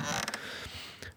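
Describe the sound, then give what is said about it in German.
A swinging trapeze creaks in a short, squeaky burst, with a couple of quick strained creaks near the start and another toward the end. It is moderately loud, with no talking. “der schaukelt gerade auf dem Trapez.”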